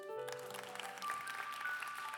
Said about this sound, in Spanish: Gracias, mi esposa. Un aplauso a mi esposa.